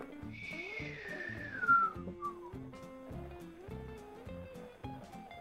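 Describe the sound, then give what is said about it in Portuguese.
A voice imitates a falling bomb: one long whistle that slides steadily downward in pitch for about two seconds, then trails off with no explosion, over a steady low background. “Falhou a bomba? Não explodiu, falhou a bomba.”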